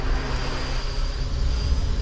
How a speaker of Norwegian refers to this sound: En drone surrer i lufta. Her er det varmt, det lukter tørt. Under drona bølger lysebrunt ørkenlandskap.